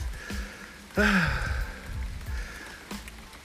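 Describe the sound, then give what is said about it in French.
Steady rain patters and hisses. A short, rising-and-falling tonal call cuts through briefly near the start, and no one speaks. “Donc, au moins, je suis à l'abri de la pluie.”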